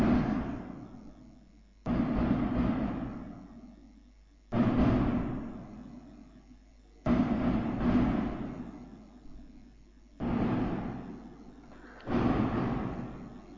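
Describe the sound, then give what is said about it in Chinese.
Firecrackers being set off by people nearby: about seven loud, sharp bangs at irregular intervals, each trailing into a long, rumbling decay, with no talking in between. “旁边的人在放放鞭炮”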